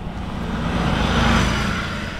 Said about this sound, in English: A bus with side mirrors like giant antennas zooms past us. Twin Peaks is one of San Francisco's top tourist destinations, and this driver seems intent on delivering his sightseers to the top before it clouds over.